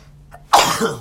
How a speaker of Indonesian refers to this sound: gokil anak jaksel bersin anjing lu tadi